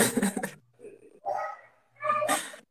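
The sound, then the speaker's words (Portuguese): A dog barks in three short, fairly loud bursts spaced about a second apart, with a faint low hum underneath. “Eu vou tentar me expressar também aqui de uma forma que o cachorro não, não, não atrapalha a minha expressão e libera a expressão da minha.”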